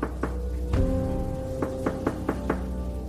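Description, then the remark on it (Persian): Several sharp knocks on a door, spaced irregularly — a couple early, one heavier thud, then a quicker run of four — over a low background hum. “وسط همین فکر و خیال بودم که دیدم صدای تق تق میاد از در”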